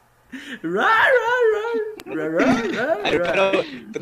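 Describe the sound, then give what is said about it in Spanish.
A person's voice mimics a dog, letting out long wavering whimpers followed by a run of quick yips and whines, fairly loud, with no actual words spoken. “Conversación de, de perros, por favor, ahorita.”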